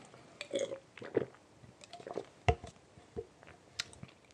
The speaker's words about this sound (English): Oh my gosh. That is good. Mhm. Oh yeah, I'm, I'm, going to take another sip. Hold up. Oh yeah. That's good.